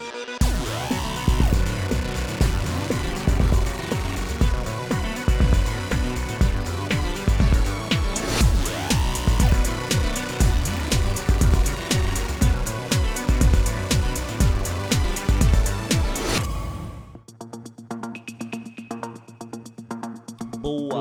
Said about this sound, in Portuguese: Voltamos aí. Voltamos então da vinheta, né, galera? A vinhetinha que rolou. Que vinheta, hein? Ficou foda Não, essa vinheta.